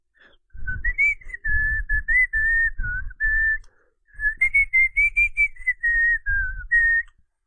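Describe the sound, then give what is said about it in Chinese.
A cheerful whistled tune in two phrases separated by a short pause, the clear, fairly high notes bobbing up and down in a lively, sing-song melody, with no one speaking. “骨头说：“他开始发出快乐的口哨声。”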